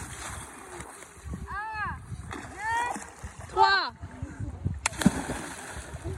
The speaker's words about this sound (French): Notre bateau se transforme en plongeoir géant et les cinq s'en donnent à cœur joie. Un, deux, trois.